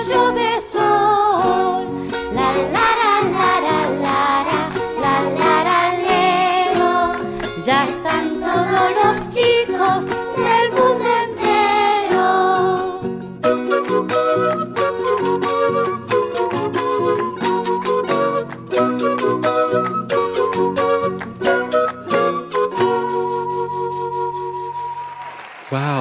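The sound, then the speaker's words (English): A cheerful children's song in Spanish, with a lively sung melody over bouncy instrumental backing. It plays loudly and steadily for the whole stretch before cutting off at the end. “That song is so cheerful and fun to listen to.”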